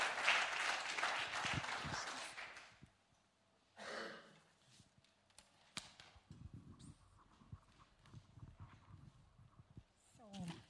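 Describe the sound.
A crowd at a church community gathering in the morning claps in a dense burst of applause for a person standing at the front, lasting a couple of seconds, then it fades out; afterward a voice talks amid scattered small knocks and rustles.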